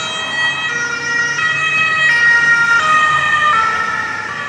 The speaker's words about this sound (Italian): Avrete fatto caso che quando un'ambulanza si avvicina a voi il eh, suo suono è più acuto di quando si allontana.